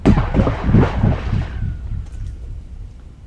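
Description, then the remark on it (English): A rock picked up off the ground is thrown into a well, a small pipe sticking out of the ground; it clatters and rumbles down the shaft, a hollow, echoing burst that fades into a faint reverberant ring as it reaches water below; no voices. “picks a rock up off the ground and he throws it into the well, just a little pipe sticking out of the ground.”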